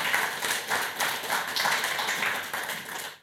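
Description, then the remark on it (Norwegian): An audience at a book event applauds steadily, a dense wash of many hands clapping at an even level for a few seconds, with no voices over it. “Da gjenstår det bare å gi eh, Bærug og Svartdal en god applaus.”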